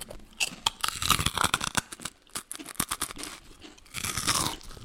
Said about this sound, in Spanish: Yo sé que no está escuchando este audio para escucharnos comer chicharrón, pero esa es una de las noticias.